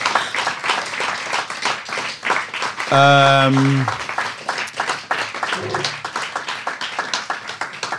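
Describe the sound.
An audience claps steadily and densely for the whole stretch, applauding a guest for her intensive work, a loud, even patter of many hands, with a brief held voiced tone and some murmured speech rising over it partway through.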